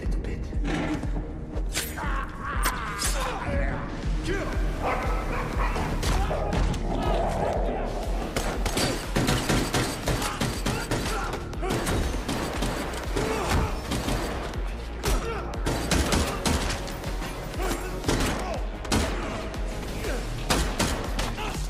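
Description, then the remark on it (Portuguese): Dense, dramatic bursts of gunfire and impacts from an action movie scene, loud and continuous over a rumbling soundtrack, with sharp cracks, thuds and crashes piling on each other. “Repara que eu escolhi este shirt este shirt que tem basicamente sons de tiros, porque é, é, é difícil eh, escolher um shirt representativo deste filme”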